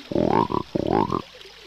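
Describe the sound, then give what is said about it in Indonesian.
Two loud frog croaks from a large frog at a lake, in quick succession, each a deep, rasping call that rises in pitch before cutting off, followed by quiet. “Di antara katak-katak itu terdapat seekor katak yang paling besar tubuhnya dibandingkan dengan katak yang lain.”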